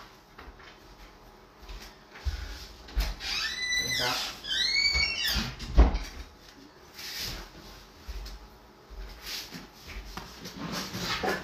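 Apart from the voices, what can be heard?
door being opened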